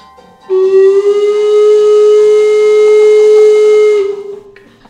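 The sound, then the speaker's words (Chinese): A railway level crossing warning signal of the kind with a lowering gate, played as a sound effect: one loud, steady, mid-pitched electronic tone with a buzzy edge. It holds unbroken for about three and a half seconds, then cuts off. “我帮你放平交道的声音在上面。”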